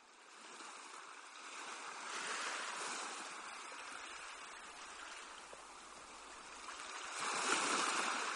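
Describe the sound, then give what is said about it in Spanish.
Small sea waves wash gently onto a beach shore in a steady, soft hiss, swelling into broader surges around the middle and again near the end, with no voices present. “Y las olas que rompen despacito en la orilla del mar.”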